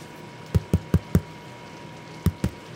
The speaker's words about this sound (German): Das, der, das war der Brottest, also so, so, so, hört sich das Brot an, wenn es geklopft wird. Also das machte eigentlich einen guten Eindruck.